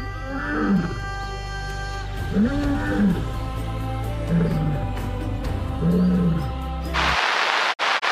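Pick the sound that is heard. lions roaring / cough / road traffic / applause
lions roaring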